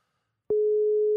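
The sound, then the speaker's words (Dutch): A telephone ringback tone while a call connects: after a brief silence, a single steady electronic beep starts and holds at a constant pitch until the end. No voices are heard. “Vind je het leuk als ik hem even opbel?”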